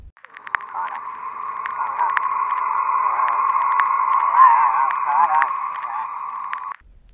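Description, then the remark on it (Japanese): A dense band of radio-like static hums steadily for about seven seconds, gradually swelling louder, with warbling, wavering tones and occasional sharp clicks mixed in before it cuts off abruptly. “ラジオのノイズのような音が聞こえてきた。その音はどんどん大きくなっていき、変な音が混じってきた。”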